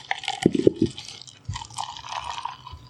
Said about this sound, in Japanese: ではね、早速今週のおビール、えー、ホップワークスさんのロボットパンダ、ヘイジ IPA。あ、いい音してますね。はい。もう皆さんごめんなさい。手弱で。あ、いい、いいやつですね、これ。はい、また金曜日のね、えー、朝からこう、ビールの音をね。